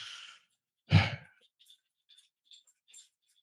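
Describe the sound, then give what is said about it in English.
A dog scratches at its collar: a breathy rustle and soft thump, then a few faint, irregular metallic clicks and jingles spread over the next two seconds, with no talking. “started scratching his collar i'm like what the hell is that noise”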